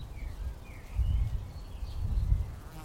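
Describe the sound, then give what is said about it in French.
A few faint, high bird chirps call back and forth over a low, steady outdoor rumble, with no one speaking: birds communicating with each other in the Bois de Vincennes woods. “Écoutez, vous entendez Ce n'est plus le bruit des métros ou des voitures, mais celui des oiseaux qui communiquent entre eux.”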